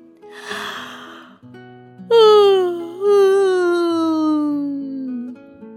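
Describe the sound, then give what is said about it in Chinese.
A storyteller's voice imitates a long yawn by the penguin Jimmy, who opens his mouth in front of an orca: a breathy intake of air, then a drawn-out vocal tone that slides slowly downward in pitch for several seconds, with soft sustained music underneath. “吉米往前走了几步，来到虎鲸面前，张开嘴巴，打了一个长长的哈欠。”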